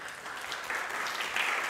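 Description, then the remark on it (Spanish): A crowd claps steadily for the teachers, a dense, continuous wash of many hands with no pauses, holding an even loudness that swells slightly toward the end. “Podemos darle un fuerte aplauso a nuestros maestros,”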